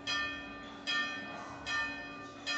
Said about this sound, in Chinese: 钟声响了，给大家听一下教堂的钟声。